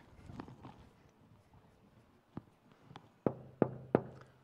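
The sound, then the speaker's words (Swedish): Knocking on a door: one soft rap, then three loud, sharp knocks in quick succession, after a few quiet seconds of faint background rustle. “Vill du inte öppna dörren?”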